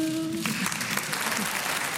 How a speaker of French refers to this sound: J'ai encore une fois envie de vous applaudir, Catherine Fro, meilleure actrice en 2016 pour Marguerite.